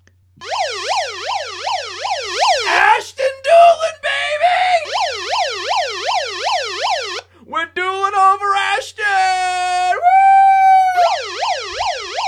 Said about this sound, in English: That is the official promoted from the practice squad siren on the Sonic Truth podcast.